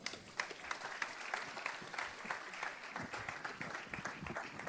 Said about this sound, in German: Äh, die Band kann auch mit nach vorne kommen. Applaus, genau.